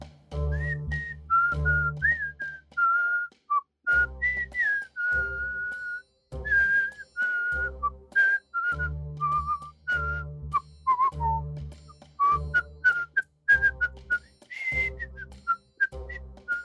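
Someone whistles a cheerful, unhurried melody of clear high notes that step and glide from phrase to phrase, with a soft low musical accompaniment pulsing underneath and brief pauses between phrases.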